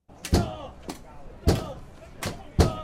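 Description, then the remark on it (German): Protesters batter an entrance door of the parliament building with metal bars: five loud, ringing blows at an uneven pace, with faint voices in the background. “Mit Eisenstangen, Rohren und einem Stahlcontainer bearbeiten Protestierende mehrere Eingänge zum Parlamentsgebäude. Die Tür gibt nach.”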